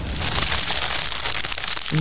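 Someone rustles inside a snack surprise bag, which crinkles steadily for two seconds, a dense, crackly, papery noise that stays fairly loud throughout, with a brief low tone near the end.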